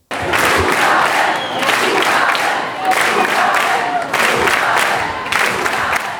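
A large concert audience near the end of the show cheers and chants loudly in rhythmic waves, a dense roar of many voices rising and falling steadily throughout, calling for an encore.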